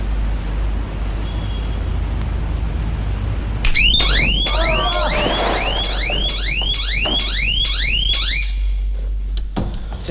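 After a few seconds of steady background hiss, a loud sound-triggered burglar alarm, a reproduction of the one installed in a Van Cleef jewelry store, starts up, blaring a rapid, repeating series of sweeping electronic whoops that continue to the end.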